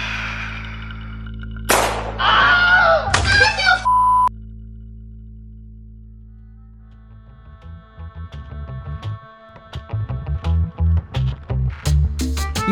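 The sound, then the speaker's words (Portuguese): A sharp gunshot sound effect cracks out, followed by a second booming burst and noisy tail, then a pause before electronic music with bright beeping tones begins. “Aí começa o episódio com um tiro já.”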